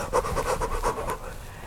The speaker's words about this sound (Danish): Det er sådan, for det første, det er det sådan, jeg kan ikke allerede være der, hvor at nu skal jeg føde det, det, det kan simpelthen ikke være rigtigt. Jeg bliver nødt til at gispe, jeg er der ikke nu,